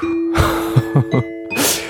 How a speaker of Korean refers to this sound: 어, 소소한 딩동댕 드리겠습니다.